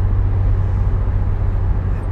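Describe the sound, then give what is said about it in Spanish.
Steady, loud road noise from inside a car driving along Bustillo by the lake early in the morning, leaving Bariloche in Patagonia on the way back to Buenos Aires, with a deep engine rumble and continuous tire hum filling the low end throughout, no voices present. “Me asomo con el auto a Bustillo y veo la inmensidad del lago, ahí furioso las olas, los corderitos golpeando contra las rocas para un lado y para el otro.”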